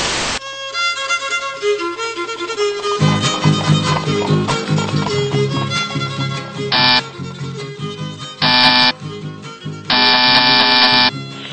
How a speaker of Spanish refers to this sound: ¿Quién es? que toca el timbre?